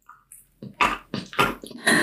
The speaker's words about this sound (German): Muss der Hund jetzt da auf dem Holz rumkauen? Ja. Sehr gut. Vielleicht sollten wir den Gincident Podcast zu einem äh, Hunde-ASMR-Podcast machen. Das hört sich bestimmt schlimm an.